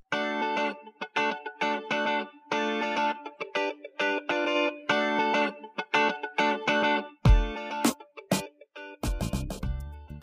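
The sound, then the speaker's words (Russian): An upbeat funky instrumental outro theme plays alone, with choppy rhythmic chord stabs over a steady groove, effected tones, and a few deep bass hits toward the end. No one speaks. “подкасте была использована музыкальная тема … композитора …”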